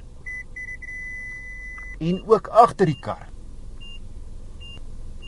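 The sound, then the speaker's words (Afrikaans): Front parking warning sensor beeps in a Mazda 6: a steady high electronic tone that pulses, then continues unbroken. A man speaks briefly, then two short, spaced beeps follow against low engine hum. “nie minder nie as 11 luidsprekers en hy het waarskuwingssensors”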